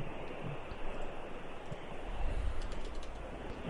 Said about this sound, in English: Phone, back in his pocket.